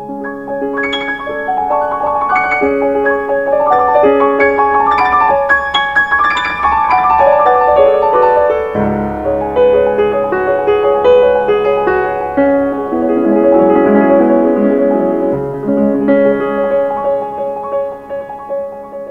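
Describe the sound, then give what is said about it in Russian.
An old grand piano is played by a young female pianist in a flowing solo passage of chords and running notes, steady and fairly loud throughout, with no voices. “вы слышите, как пианистка Марта Аргерих в юности играет на старом рояле”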